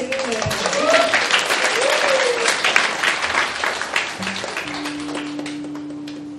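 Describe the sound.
An audience applauds steadily, a dense wash of many hands clapping with a few voices calling out, before a low sustained tone rises beneath the fading claps.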